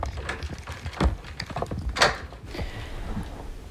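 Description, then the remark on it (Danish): A door being locked behind a visitor who has been allowed by the Danish Prison and Probation Service to visit an inmate, shutting them into a small room with a sofa, fridge and dining table: a few sharp clunks and clicks, the strongest two about a second apart, over a low, steady rumble with no voices. “Så er der blevet låst efter mig.”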